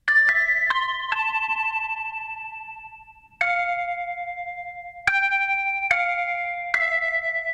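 A ringtone melody of bright, bell-like electronic notes, about seven of them in an unhurried sequence, each struck sharply and ringing on before the next. No talking. The ringtone is inserted into a music track, linking the intro and the chorus.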